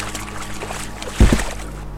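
A dugout canoe moves through water as a man, helped by his uncle, gets back into it and returns to the shore. There is a steady wash of lapping water and a sudden heavier splash and knock near the middle, moderately loud.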